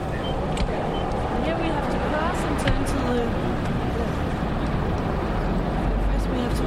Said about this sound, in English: At a busy intersection, trucks and cars zip by quickly, and so do bicycles.